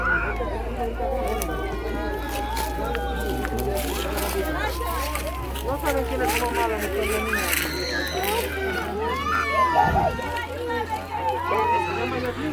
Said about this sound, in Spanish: Este audio que le estoy presentando, que está escuchando de fondo, son este pues personas que están tiradas, bebés llorando eh, de fondo, porque pues también había familias.